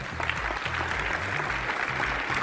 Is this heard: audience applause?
yes